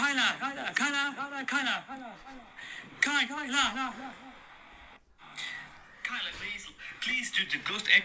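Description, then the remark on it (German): A voice repeats one short word over and over in quick bursts, each round trailing off softer like a fading echo, with ghostly overlapping copies and a brief silence midway. “Das ist auch nicht schlecht, da macht das das Ghost Echo.”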